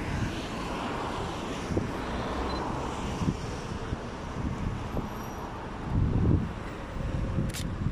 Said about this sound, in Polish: jakiś traktor też jest.